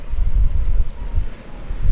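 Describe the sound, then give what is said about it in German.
Gusty wind blowing hard across an open beach on Little Jinmen in Taiwan's Jinmen island group, buffeting the microphone with a loud, low rumble that surges and eases throughout, with no voices heard. “Hier bin ich gerade an einem windigen Strand auf der taiwanischen Inselgruppe Jinmen.”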